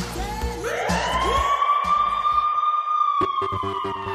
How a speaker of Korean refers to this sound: 큰일 났나. 어디서 뭐, 뭐가 앰뷸런스냐, 뭐냐.